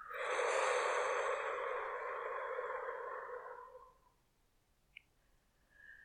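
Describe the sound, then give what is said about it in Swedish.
A slow, deep exhale during a guided breathing exercise, released after briefly holding the breath: a steady breathy rush that lasts about four seconds and gradually fades to quiet. It is fairly loud, with no talking. “Och andas ut.”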